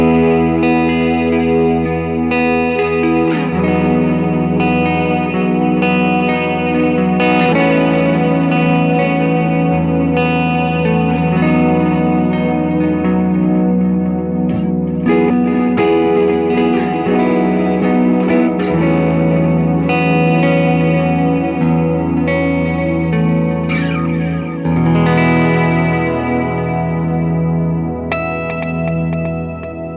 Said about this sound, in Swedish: Nu hade vi mix och feedback väldigt högt upp, men bara för att illustrera poängen med att hur man kan jobba med delay på ett sätt som går in i reverb-domänet.